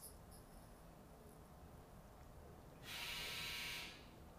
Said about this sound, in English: My dryer's done. My clothes are dried.